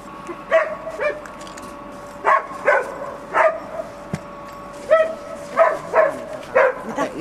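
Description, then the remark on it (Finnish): A search dog whimpers and lets out soft, short barks in a string of about ten irregular bursts as it reacts to a scent in a tent hall, with a faint steady hum in the background and no one talking. “koira alkoi niin reagoimaan, alkoi niin vuotamaan, vikisemään, pikkusen haukahteli”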